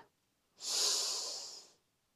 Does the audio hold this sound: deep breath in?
yes